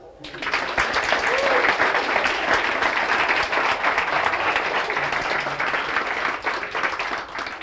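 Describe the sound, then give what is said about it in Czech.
A crowd bursts into sustained applause, many hands clapping densely and steadily for several seconds, with no voices standing out. “a tady máte ode mě ten slíbený klikr a my bychom vám mohli zatleskat.”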